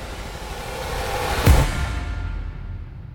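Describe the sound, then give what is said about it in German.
Steady sea surf hisses, with one wave surging and breaking loudly about halfway through before the wash recedes into a softer rushing. No voices. “Ich sitze hier in Hemd, kurze Hose, Blick aufs Meer, Eiskaffee in der Hand und den Laptop auf dem Schoß.”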